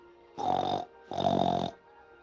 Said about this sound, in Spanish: Y lo propio sucedió con un perro que ladró, un gallo que molló, y un cochino que gruñó,